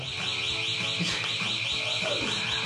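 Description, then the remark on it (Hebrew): A steady, high-pitched alarm siren wails continuously, its tone pulsing in a regular repeating cycle, loud and unbroken throughout, with faint background noise underneath. “אז אני, יש לי הרבה דקות לדבר פה עכשיו עם אזעקה ברקע.”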